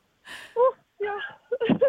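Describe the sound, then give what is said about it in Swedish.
Bursts of high, excited children's voices in short, breathy exclamations and squeals, fairly loud, coming in several quick spurts separated by brief pauses; the children are dancing. “vad säger, vad säger barnen i bakgrunden”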